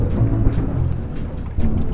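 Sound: loud thunderclap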